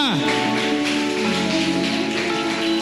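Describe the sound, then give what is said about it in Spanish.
An audience applauds the King of Glory steadily, a dense crackling wash of clapping that holds at an even loudness, with sustained musical chords playing underneath. “Dele ese aplauso al Rey de Gloria.”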